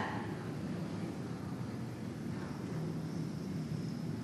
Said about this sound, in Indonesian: ada suara motor.